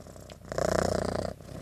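A cat purrs, a steady rumbling vibration that swells louder midway through the brief moment, with no talking.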